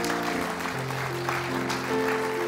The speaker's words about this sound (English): And if you are thankful that our Lord and Savior will never leave nor forsake us, and that He's with us till the end of the age, if we clap for anything, it ought to be that.